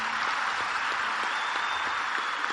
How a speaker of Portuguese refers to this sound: Aí, dá um aplauso aí